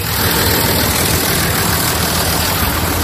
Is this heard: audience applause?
no